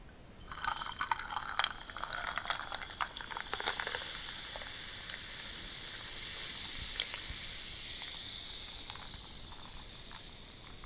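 Carbonated Wilkinson tonic water pours into a glass of gin, a bright fizzing hiss with crackling bubbles that swells over the first few seconds, then settles into a steady soft effervescent sizzle with occasional pops.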